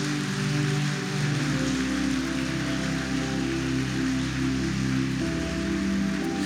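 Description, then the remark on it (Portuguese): An audience applauds for Jesus in a dense, steady roar of clapping that continues the whole time, with sustained low keyboard chords underneath that shift near the end. “Se for para Jesus, você pode aplaudir mais forte.”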